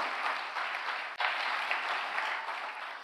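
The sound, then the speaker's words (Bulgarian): An audience claps steadily during a sermon, a dense, even wash of applause offered to God, with a brief dip partway through before it resumes at the same level, no voices rising above it. “О, ако вярваш в това, защо не дадеш на Бога едно дарение на ръкопляскане, като че разбираш това, което проповядвам?”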